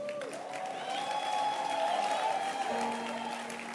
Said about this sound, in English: Clap your hands again.